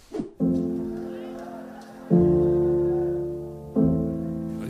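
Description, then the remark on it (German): Slow, somber music with sustained, organ-like chords that change three times, each swelling in and ringing out steadily at a moderate volume, with no talking over it. “Die Musik klingt schon so, als müssen wir uns gleich begraben gehen.”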